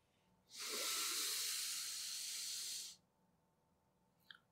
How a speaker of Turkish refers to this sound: Şimdi burnunuzdan alabildiğiniz kadar derin bir nefes alın.